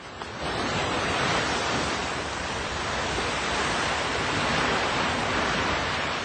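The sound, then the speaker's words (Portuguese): Steady, broad roar of ocean waves washing continuously, with a windy hiss layered over it, loud, heard aboard a ship sailing to France over several weeks at sea; no voices. “Após várias semanas no mar, finalmente chegaram ao seu destino.”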